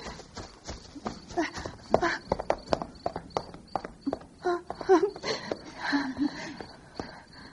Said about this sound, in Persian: شما هم شنیدین صدای در حیات بود